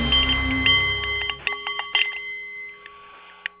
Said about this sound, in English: That's the Nepalese meditation bowl with a little help from Big Ben. Uh, and that's chiming